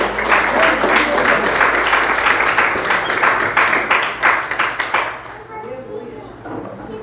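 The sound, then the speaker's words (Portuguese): An audience applauds in praise of the Lord Jesus, a dense stretch of many hands clapping with some voices mixed in, holding steady for about five seconds before thinning out and fading. “Eu agradeço a oportunidade, as palmas que adoram e exaltem ao Senhor Jesus.”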